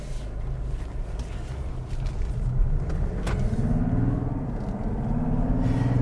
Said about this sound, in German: Man hört schon, der Diesel ist jetzt kein Leisetreter. Also man hört ihn schon, aber bei Mazda sind Diesel generell nicht so leise. Macht aber nichts, er klingt ja schön.